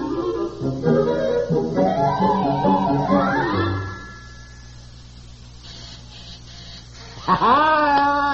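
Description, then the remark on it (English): An electric buzzer from a newly installed home buzzer system drones in loud, harmonic-rich bursts that step and rise in pitch for a few seconds, fades to a low hum, then sounds again with a rising whine near the end. “Oh, honey, look, did, did a buzz out in the kitchen?”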